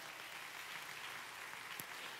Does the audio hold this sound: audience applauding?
yes